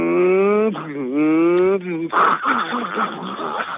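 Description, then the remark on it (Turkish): A voice mimics a car gear failing to engage, as when trying to shift into third and the gear will not go in: a strained, droning hum that shifts pitch, then a rough, raspy grinding noise held for a couple of seconds, loud. “Yanlış yere veya tam ayrılmamış girmeyen vites sesi. Hani 3'e atmaya çalışsa girmez ya.”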